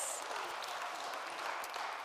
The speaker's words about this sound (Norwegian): Er det ikke fint at Guds menighet ikke er norsk? Ja, vi tar en applaus. Yes!